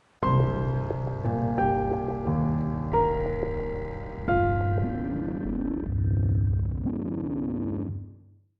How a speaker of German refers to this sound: Das Orchester hört schlagartig auf zu spielen. Die Percussion fallen auf den Boden. Nur ein monotoner Summton bleibt.